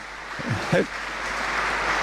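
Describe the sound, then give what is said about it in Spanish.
Steady applause fills the Cathedral of Mondoñedo as the new bishop, Fernando García Cadiñanos, takes possession of his see, a dense wash of clapping that holds at an even level throughout, with a brief voice rising over it partway through. “Como pueden escuchar, la catedral ha roto un aplauso, ¿es verdad, padre?”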